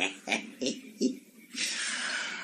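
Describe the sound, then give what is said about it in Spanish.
A man snoring: four quick, rough snorting breaths in a row, then a long, steady breathy hiss as air is drawn out, with no talking. “Voy a dejar que pase un rato y que el padredito siga roncando.”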